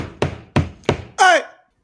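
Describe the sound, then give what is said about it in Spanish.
Three solid knocks on the door of Plaza Vea, evenly spaced about a third of a second apart, followed by a brief high, squeaky sound that fades out. “tócale la puerta a Plaza Vea para que te dé tu”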